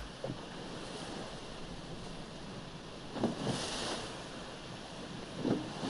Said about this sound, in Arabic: في البحر على مركب الصيد لا يوجد احد غيرك في المركب لا توجد مراكب اخرى على مد البصر فقط صوت الامواج وهي ترتطم بالقارب